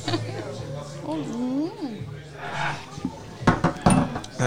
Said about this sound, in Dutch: En proosten we dan over de tafel heen, of was het idee? En dan roep je gewoon uh, Strofja en dan... Uh, Strofja? Oké, okay, Strofja! Strofja! Ja. Proost.